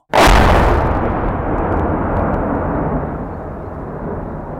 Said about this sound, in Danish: Pludselig lød et sønderrivende brag.